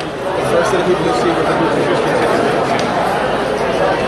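A steady, dense wash of crowd chatter fills the Apple store on Fifth Avenue in Manhattan, New York, a very large area with many tables, many overlapping voices blending into a lively, festive hubbub with no single speaker standing out.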